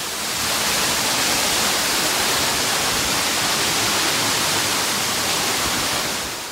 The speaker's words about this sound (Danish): jeg var lige ved at fortælle noget, men så kom ja. det her vandfald, altså, ja.